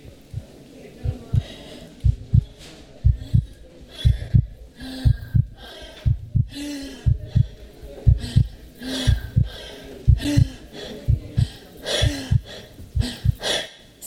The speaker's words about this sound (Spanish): Sientes que todos los que están a tu alrededor alcanzan a escuchar los latidos de tu corazón